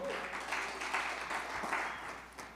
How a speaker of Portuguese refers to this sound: Aplaude Jesus, cara, isso é demais.